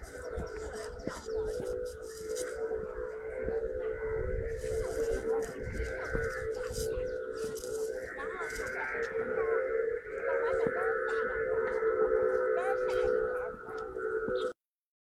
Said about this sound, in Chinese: 那给你们听听空竹的声音吧，有人在抖空竹，给你们听听。